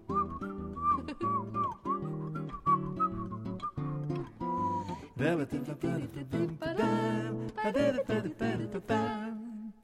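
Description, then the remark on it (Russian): A clear whistled melody rides over steady musical accompaniment, the tune wavering and sliding through short phrases before the backing grows fuller and busier toward the end. “а свистеть ты будешь?”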